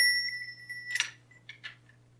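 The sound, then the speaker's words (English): A small bell rings with a clear, sustained metallic tone that hangs for nearly a second, followed by a few short, quieter clinks. Fairly soft, with no talking. “I can ring this bell or I can ring this bell.”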